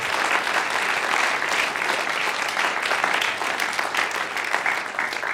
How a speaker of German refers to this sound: Und weißt du, da könnten wir dem Gott mal einen Applaus geben. Er ist ein guter Gott.